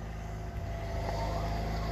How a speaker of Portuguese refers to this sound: O barulho de um motor, eis a tecnologia que nos toca.